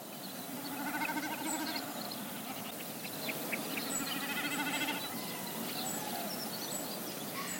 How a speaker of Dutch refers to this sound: We zien op dit moment geen watersnippen, want ze zitten vaak bijzonder goed gecamoufleerd. Maar als je ooit dit bijzondere geluid hoort in de vallei van de Zwarte Beek